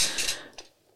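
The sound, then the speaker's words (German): Soft clatter of plates and cutlery in the background during a meal of open sandwiches: a brief scraping rattle followed by one sharper clink that quickly fades, with no one talking. “Das, was ihr jetzt hört, sind so Teller und Besteck im Hintergrund.”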